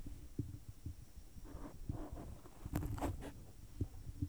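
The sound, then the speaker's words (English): A pet sitting on a computer sniffs right up against the microphone, quick breathy bursts of air mixed with soft low thumps and rustles from close contact, no voices. “Did you guys hear her sniffing the mic?”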